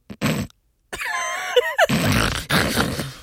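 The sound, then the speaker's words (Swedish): A voice imitates a taxi driver's heavy, labored breathing: a short rasping breath, a pause, then strained groaning sounds that become long, loud, noisy exhales and inhales. “för, det första, för första andades han så här. Hela tiden.”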